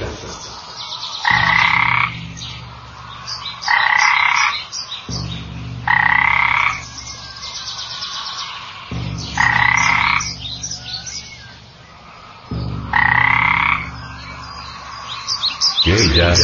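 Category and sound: animal, frogs croaking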